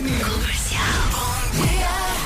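A man yells loudly and continuously for about two seconds, his strained voice rising and falling in pitch, forceful with no pauses.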